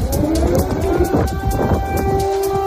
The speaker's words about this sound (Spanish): Estas son las sirenas antiaéreas que no han dejado de sonar en las últimas horas.